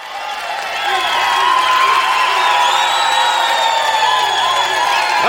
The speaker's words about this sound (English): Ladies and gentlemen, let's have a round of applause.